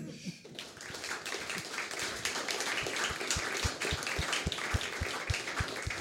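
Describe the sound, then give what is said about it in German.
A crowd breaks into sustained applause for the show's history segment, a dense crackle of many hands clapping at once, with a steady rhythmic beat of low thumps joining partway through and continuing to the end. “Ein Applaus für unsere Historie.”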